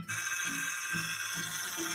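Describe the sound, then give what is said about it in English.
A car's power steering groans with a steady high whine and a low, wavering moan that swells and dips every half second or so, with no one talking. “Hey, buddy, if your car making a sound like this,”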